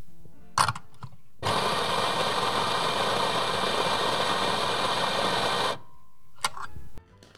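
A coffee grinder roars steadily for about four seconds, a loud, dense whirring buzz that starts and stops abruptly, framed by a few sharp clicks and knocks of handling before and after.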